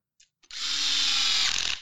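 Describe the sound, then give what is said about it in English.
An electric drill whirs steadily for over a second, driving a gearbox screw, preceded by two brief clicks of the trigger. No voices are heard. “So we finished with your electric drill.”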